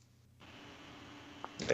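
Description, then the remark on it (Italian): A finger accidentally strikes a keyboard: a single faint, brief click over a steady background hiss, then a louder, short clatter of keys right at the end. “No, il dito! Si è caduto il dito sulla dita, tastiera.”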